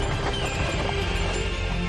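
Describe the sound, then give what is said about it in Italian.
Several horses' hooves clatter in a fast, continuous jumble over a heavy rolling rumble, loud throughout, as a team pulls a stagecoach away at speed. “Andate, voi della diligenza. Via! Forza Belli! Via di qui!”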